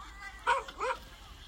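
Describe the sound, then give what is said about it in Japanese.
A dog lets out two quick, bright, cheerful barks about a third of a second apart, happily greeting a young woman, fairly soft, with quiet background before and after. “ミノティが嬉しそうに声をかけ”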